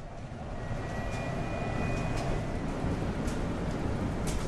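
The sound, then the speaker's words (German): Steady low vehicle rumble inside a quiet hydrogen fuel-cell bus fills the whole stretch, with a thin, high electric motor whine rising faintly above it for a second or so before fading back into the drone; the steering gear is also audible. “Man hört nur den Elektromotor und man hört nur das Lenkgetriebe, ansonsten ist Ruhe.”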